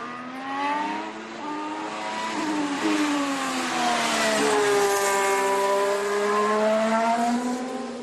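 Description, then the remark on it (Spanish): The engine of the Alpine Formula 1 race car of Fernando Alonso and Esteban Ocon screams loudly, its high-pitched whine rising and dropping repeatedly through gear shifts and throttle changes for several seconds, with no voices. “Pero bueno, como es nuestro motor, uno de nuestros motores, pues así suena el Alpine de Fernando Alonso y Esteban Ocon.”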